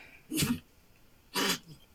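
A small female pet dog lets out two short, breathy, raspy noises about a second apart, with nothing else but a quiet background around them.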